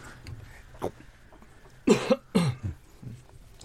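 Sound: coughing fit from choking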